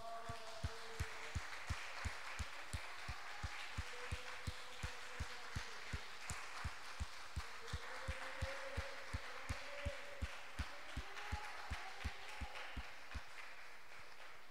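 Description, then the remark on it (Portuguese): A crowd claps for Jesus in steady unison, a firm rhythmic beat of about two claps per second continuing for the whole stretch, with faint voices and a bit of music underneath. “E se você crer que Deus vai dar muito mais esse ano, bata palmas para Jesus.”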